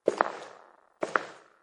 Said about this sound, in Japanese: 夢の内容はこうです。夜、寝ていると外で足音が聞こえる。誰かがアパートの階段を上がってくる。